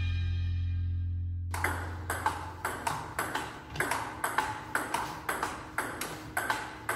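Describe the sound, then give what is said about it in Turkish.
A table tennis ball clicks back and forth between paddles during a table tennis match, a quick, steady rally of about a dozen sharp hits, following a sustained low tone at the start. “Bu dinlediğiniz bir masa tenisi karşılaşmasının sesi.”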